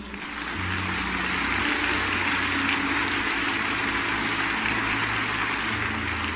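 A standing audience applauds the Lord at a Ministerios Comunidad de Fe church service, a dense, sustained wash of many hands clapping at an even loudness for several seconds, with a faint low hum underneath and no speech.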